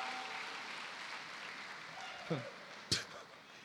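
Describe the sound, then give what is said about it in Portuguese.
Steady applause from a crowd of men, a dense wash of clapping with a couple of sharper bursts near the end and a murmur of voices underneath. “Só tem homem aplaudindo.”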